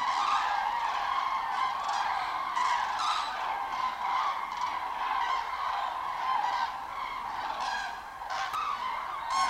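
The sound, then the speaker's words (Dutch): A dense chorus of common cranes trumpeting in Flanders, many loud bugling calls overlapping continuously as if from a large flock flying over on migration, with no voices. “Dan hoor je ze af en toe luid trompetteren.”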